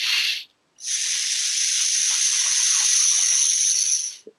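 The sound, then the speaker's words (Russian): A short hiss, a brief pause, then a long, steady breathy hiss of a sustained "s" sound lasting several seconds, bright and even, ending abruptly with a faint click; a breathing exercise in which air is pushed out by the abdominal muscles after a breath into the belly. “Э, на звуке пару раз сделали, настроились, и потом делаем то же самое, только на звуке «С».”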